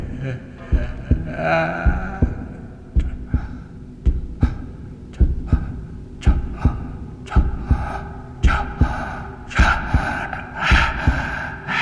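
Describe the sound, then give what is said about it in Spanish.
A steady heartbeat thumps in a regular rhythm, about one beat per second, its pounding growing stronger and fuller toward the end. “Pero el latido crecía cada vez más fuerte. Más fuerte.”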